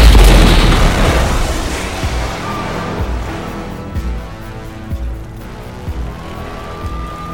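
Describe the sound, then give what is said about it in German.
A hover taxi falls from the sky and crashes into a bar with a loud explosive boom, followed by a fading rumble, scattered thuds of falling debris and a thin rising whine near the end. “Hover-Taxis fallen nicht vom Himmel in Bars, die möglicherweise Tatorte von Verbrechen waren.”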